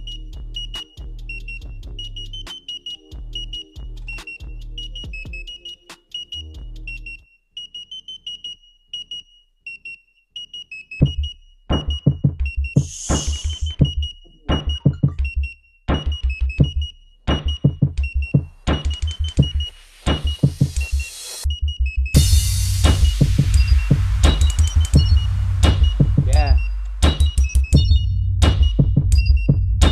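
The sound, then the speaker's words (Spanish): A hip-hop beat built from modified microwave sounds, its bass made from a microwave: a high electronic beeping tone over a pulsing low bass, with punchy drums and heavier bass joining partway through. No voices. “algunos sonidos los modifiqué para que sonara mejor. Por ejemplo, el bajo es un microondas.”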